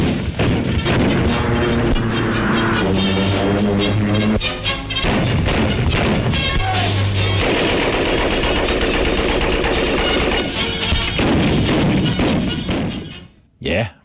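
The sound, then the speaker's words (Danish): A Bofors anti-aircraft gun of Swedish design, mass-produced in British factories, fires explosive shells at two a second in a loud, steady rhythm of heavy, booming reports, while a voice speaks over the din before it cuts off. “Listen to the amazing bark of these giant machine guns that fire explosive shells at two a second.”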